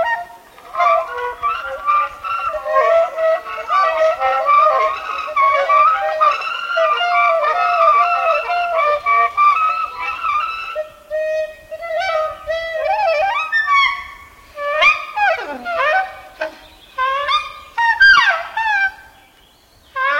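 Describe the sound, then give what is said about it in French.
Four saxophones play together outdoors in the trees of a forest, first in dense, overlapping sustained tones, then breaking into sparser honking squeals and swooping, bird-like cries. No one speaks. “Dans les arbres, quatre musiciens, quatre saxophonistes, réintroduits en milieu sauvage.”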